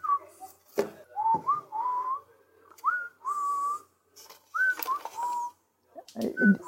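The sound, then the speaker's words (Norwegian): Someone whistles a simple melody in a series of short phrases with brief pauses between them, fairly clear, with a few soft knocks and handling noises in the background. “Du, plystre den litt igjen også.”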